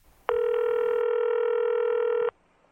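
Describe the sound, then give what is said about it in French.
A steady electronic telephone tone sounds once for about two seconds as a phone call is placed, loud, then cuts off abruptly. No one speaks. “Allez, je l'appelle.”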